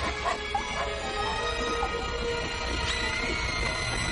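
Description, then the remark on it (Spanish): A small dog whimpers and yips in short bursts, with a few brief barks over a steady background hum; the sounds are moderately loud throughout. “por las noches dejaba que el perrito se quedara bajo su cama.”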